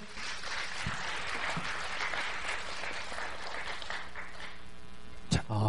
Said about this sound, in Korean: 잘생긴 남자분이 어... 나오셨습니다. 네. 자, 용기 내신 분이에요. 박수 한번 크게 주세요.